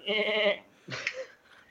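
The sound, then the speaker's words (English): A person's voice imitates a billy goat, giving one loud, quavering bleat, followed by a couple of shorter, breathier bleat-like noises and the start of another. “I had the giant and had all these billy goats, I did all the billy goats in it.”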